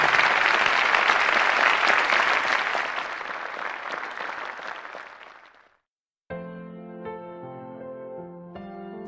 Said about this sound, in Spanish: Fuerte el aplauso que se sienta.